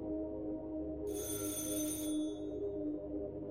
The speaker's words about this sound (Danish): Dørklokken ringede igen.